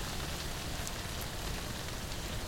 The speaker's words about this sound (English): I actually harvested this rain noise by myself with a pocket sized microphone. I took my laptop and stood under my parents' tarp garage during a thunderstorm in 2016